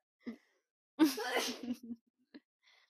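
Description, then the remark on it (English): A single loud sneeze bursts out with a sharp, hissing rush of air, framed by faint breathy sounds and a soft click just before and after. “you're right, my darling. Bless you.”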